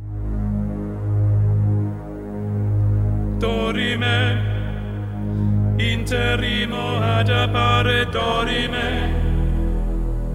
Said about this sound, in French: Nous terminons en musique avec une chanson